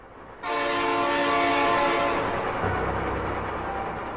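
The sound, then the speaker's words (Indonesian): A loud train horn blares in a long sustained blast, then cuts off, leaving the steady rumble of a passing economy-class passenger train departing from Pasar Senen. “perjalanan itu normal aja waktu itu berangkat dari pasar Senen itu sore lah jam 2 jam 3 sebelum asar waktu itu gue pakai kereta ekonomi”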